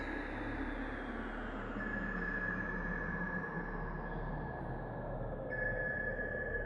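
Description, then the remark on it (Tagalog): A noise-emitting scrambler device is switched on: a steady, dense electronic noise hums continuously, with a sustained high tone running through it and a low droning rumble underneath, loud with no talking. “Dali-dali niya binuksan yung mekanismo na nagbibigay ng ingay.”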